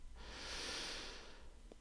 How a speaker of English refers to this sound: And take three more deep breaths in and out, breathing in